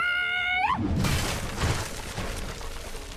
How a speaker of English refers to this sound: I go to open it. It's locked turn around, and with my back legs, just kick those doors down.